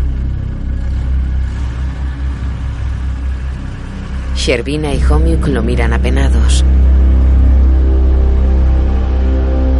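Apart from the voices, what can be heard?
car driving away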